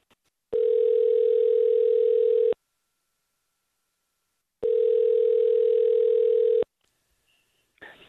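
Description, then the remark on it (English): Two long ringback tones on a phone line as a Star 1013 morning show places a call, each steady and about two seconds, separated by a pause of silence, heard clearly and alone before a faint sound at the end. “We're going to call her, so mute your phone out.”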